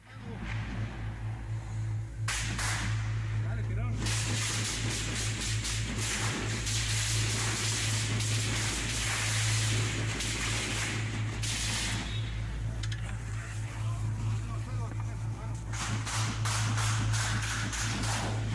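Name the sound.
gunshots fired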